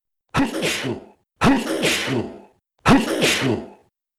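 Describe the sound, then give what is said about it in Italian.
Three loud, explosive sneezes come in quick succession, each a sharp burst trailing off into breathy noise, with short pauses between. A voice performs them in imitation of real sneezes, as the character Mangiafuoco in Pinocchio. “E fa altri tre starnuti.”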